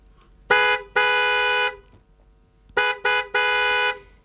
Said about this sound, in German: Erst das Hupen weckt ihn dann auf und es geht weiter.